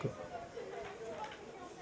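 The Mistral wind buffets a microphone with a steady, rough rumble and a sharper gust at the very start, blurring everything into a continuous noisy roar with faint murmuring underneath.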